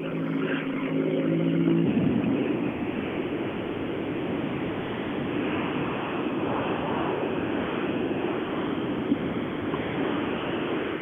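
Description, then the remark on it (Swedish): A race car engine drones with a steady tonal hum for the first two seconds, then gives way to a loud, continuous rushing roar that lasts to the end, with no voices. “Ja, att det gått väldigt fint i maskinen med bilen. Den låter väldigt bra.”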